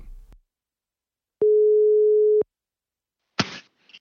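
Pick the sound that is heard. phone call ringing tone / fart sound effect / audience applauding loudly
phone call ringing tone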